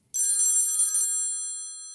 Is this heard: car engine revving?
no